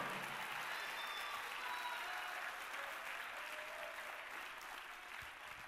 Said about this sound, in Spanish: Apláudale fuerte al Señor como Él se lo merece, hermano.